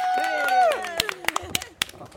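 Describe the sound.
A short burst of scattered applause: a rising, wavering cheer-like voice at first, then several sharp, uneven claps breaking out over roughly a second.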